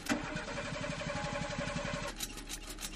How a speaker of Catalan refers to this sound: El cotxe sembla com si volgués engegar-se. Fa l'esforç, però no. Ho intenta una vegada i una altra. I no.